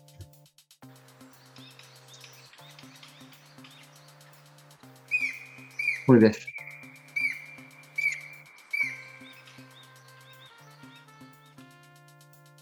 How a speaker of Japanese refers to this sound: 青ゲラっていうやつも、えー、街中で意外と見られる機会は少なくないっていうのがあります。で、このあ青ゲラですね。これもね、あの、鳴き声聞いたことある方いらっしゃるかもしれないんで、一応ちょっと